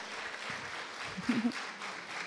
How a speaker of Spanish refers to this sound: Levante la mano la persona que se considera, pero realmente feliz. Un aplauso a cinco personas. Se lo merecen. No lo dudaron.